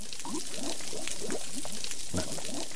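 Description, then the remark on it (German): Dense underwater crackling from snapping shrimp, countless sharp little pops fizzing together into a steady sizzle, like frying fat, filling the whole clip with no voices. “So klingen Knallkrebse.”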